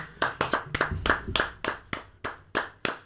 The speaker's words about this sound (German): Erstmal Applaus kurz.